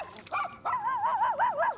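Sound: small dog barking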